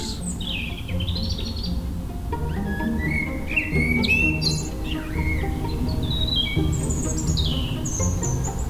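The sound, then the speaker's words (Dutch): A European robin sings a pearling, watery song of thin, high trilling phrases and liquid runs, clear, over a soft continuous low rumble with no talking. “Die roodborst heeft een heel parelende, eile, waterige zang.”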